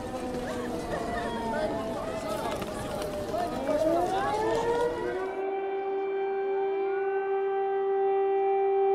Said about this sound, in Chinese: 然后呢，号召民众呢找避难所啊，全天都是航空警报。